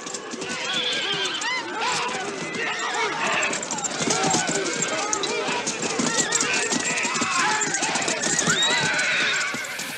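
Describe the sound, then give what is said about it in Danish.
Horses carrying riders gallop in a buzkashi match, Afghanistan's national sport played on horseback, in a scene from the classic early-1970s film The Horseman: a dense, continuous rush of hoofbeats, with neighing and a crowd of shouting voices layered over the thundering, busy mix throughout. “Det du hører her, det er ryttere, der er midt i udførelsen af nationalsporten Bushkashi.”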